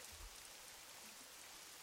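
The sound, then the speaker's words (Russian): Steady rain patters down on the wooden boards of a terrace, a dense hiss of drops tapping, continuous and fairly quiet with no voices. “Капли стучат по деревянным доскам, а также оставляют круги на воде.”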